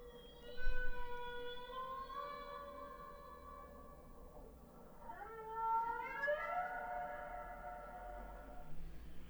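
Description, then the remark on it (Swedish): A humpback whale call: two long, harmonic moaning tones, the first held and slowly rising, the second sweeping upward and sustained, over a low steady rumble with no talking. “Ja, ja det är ju en eh, knölval, knölvalsljud eh, och läte.”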